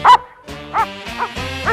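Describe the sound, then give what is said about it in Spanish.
A dog barks four times in a steady, unhurried rhythm, fairly loud, the first bark the strongest. There is no talking. “Como el perro”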